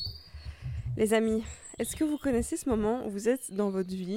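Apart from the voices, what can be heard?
small birds chirping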